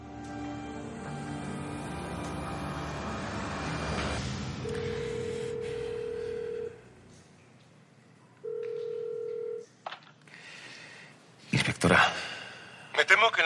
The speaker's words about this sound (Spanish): En el puesto de mando, el profesor se sienta y descuelga el teléfono rojo.